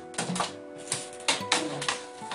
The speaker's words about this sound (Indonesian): Wah, ada suara pintu dibuka